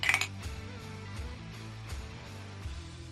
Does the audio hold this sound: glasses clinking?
yes